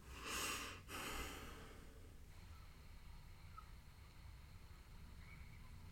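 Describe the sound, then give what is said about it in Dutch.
Two loud, airy breaths into the microphone, a deep inhale followed by a long exhale, then a few seconds of quiet background hiss with no talking. “Niks zeggen, geen woorden gebruiken. Laag in, de ene, in, de, in je ademhaling.”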